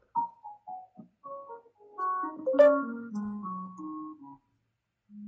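A short pentatonic melody played on the piano's black keys: a few separate notes at first, then overlapping, ringing tones that build up and fade out, with no voices.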